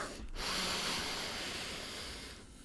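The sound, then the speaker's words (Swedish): A long, steady inhale through the nose, an airy rushing hiss that swells and holds for a couple of seconds before tapering off, with no talking. “Som, eh, nej men det här med att andas in med näsan mm.”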